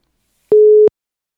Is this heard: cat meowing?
no